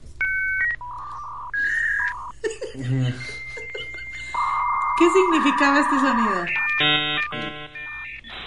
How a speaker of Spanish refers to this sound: Esto era lo que sonaba cuando tratabas de conectarte a internet. Eso. Eso. Porque el internet se conectaba al teléfono. Al teléfono. Y nadie podía hacer llamadas.